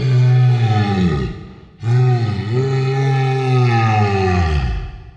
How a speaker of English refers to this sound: the Big Daddies themselves sound very creepy, actually, as well. That's done by slowing down a lot of audio recordings yeah. of people in pain.